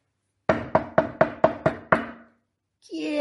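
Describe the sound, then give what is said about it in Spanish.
Seven firm, evenly spaced knocks on a door in quick succession, fairly loud, each with a short hollow ring, as a young woman knocks at a healer's door on a hot afternoon; after a brief pause a voice starts speaking. “¿Quién llama? Déjeme entrar, doña.”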